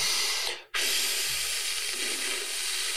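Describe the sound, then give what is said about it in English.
A long, steady breathy hiss of air blown out through pursed lips during pursed-lips breathing after a deep breath in, fairly loud, with a brief pause near the start before the exhale resumes and continues evenly to the end. “you would take this long, slow exhalation through pursed or puckered lips”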